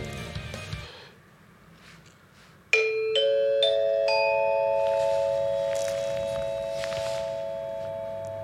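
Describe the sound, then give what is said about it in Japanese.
A bright electronic studio chime jingle, played to introduce the traffic information segment, rings out after a brief stretch of low shuffling noise. Several bell-like tones step in one after another and then hold, sustained and fairly loud. “はいということで次こうあチャイムが出なくなったあ出てきたはいということで次交通情報いきましょう”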